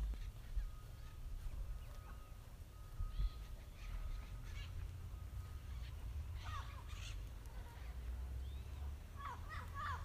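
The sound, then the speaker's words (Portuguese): Brazilian forest birds, including a parrot native to Brazil, call intermittently over a steady low rumble, with scattered chirps and squawky cries rising and falling, some louder bursts toward the end. “E todas as outras aves que habitam ah, o nosso verde exuberante, que será que nos dizem?”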